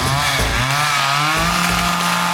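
A chainsaw engine revs loudly, its buzzing pitch rising and dipping over a couple of seconds as the throttle is worked, with no voices.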